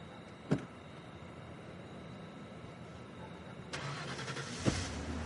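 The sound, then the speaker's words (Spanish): A car engine starts up after a sharp click, turning over into a steady, broad rumble that keeps running, with another brief knock partway through, as Cooper, at the wheel, starts the car with Laura aboard. No one speaks. “Arranca.”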